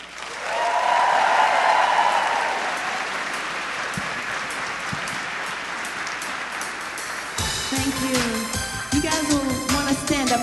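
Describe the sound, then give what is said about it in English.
An Asbury audience bursts into loud, sustained applause welcoming a music duo, swelling early and slowly tapering off, then the duo's instruments start playing over the last few seconds of clapping. “Please give a huge Asbury welcome”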